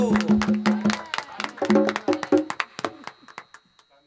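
A short burst of applause: a small group claps in quick, uneven bursts with voices or cheers mixed in at first, then the clapping thins out and fades over about four seconds.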